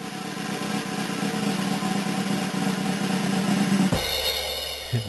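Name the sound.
drum roll sound effect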